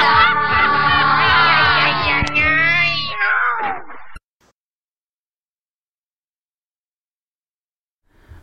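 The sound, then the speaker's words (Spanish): The closing seconds of the Latin American Spanish intro theme of the animated series Los Gatos Samurai (Samurai Pizza Cats), first aired in Japan 1990 to 1991: a loud sung, wavering note over a steady drum beat that ends abruptly, followed by several seconds of silence. “Acabamos de escuchar el intro latinoamericano de Los Gatos Samurai, eh, en inglés Samurai Pizza Cats.”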